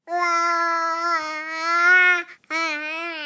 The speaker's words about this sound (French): Eh oui, les babillages ne sont pas du n'importe quoi, c'est bien l'inverse. Les cris et babillages sont en fait la véritable entrée des humains dans le langage oral, et ce bien avant les mots